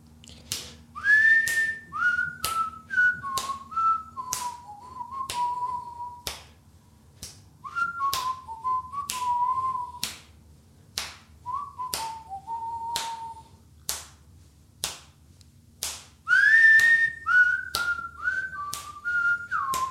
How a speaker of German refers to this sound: Ihr fragt euch, was ich hier tue. Ich stehe im Korridor unserer Wohnung und pfeife und schnipse